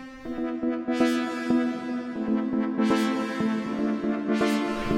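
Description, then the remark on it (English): Sustained synth chords with the noise effect turned off, shimmering with a chorus effect and a wide, washy reverb tail, pulsing in a steady rhythm, with airy swells rising every couple of seconds and no voices. “Turn your sound noise noise off, just chorus, bit of reverb,”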